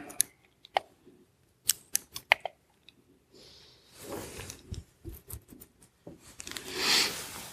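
Paper rustles close to the microphone: a run of sharp crisp snaps and crackles, then longer, louder crinkling bursts as the sheets are shuffled and handled. No one speaks.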